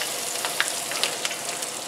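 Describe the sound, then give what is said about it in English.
Breaded steaks in a pork rind and cheese coating sizzle steadily in hot frying oil, two at a time, a continuous hiss with a few sharp pops and crackles scattered through it, and no voices. “You can hear the little sizzle. They go quick, so I'll just do two at a time.”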